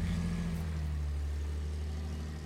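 A car engine idles steadily, a low, even rumble with a constant hum that holds level for a few seconds, no voices present.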